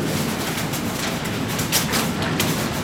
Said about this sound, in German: Das ist eigentlich das Hirn er erkennt, ist es Karte oder Papier oder etwas anderes. Und da vorne gibt es nachher den Impuls, um mit Druckluft rauszuschiessen.